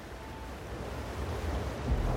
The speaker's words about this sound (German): … starrt die Straße hinunter und sieht eine Wasserwand direkt auf sich zukommen.